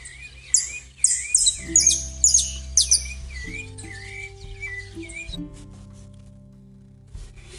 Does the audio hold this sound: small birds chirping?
yes